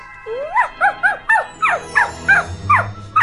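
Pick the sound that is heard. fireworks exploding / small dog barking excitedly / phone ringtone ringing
small dog barking excitedly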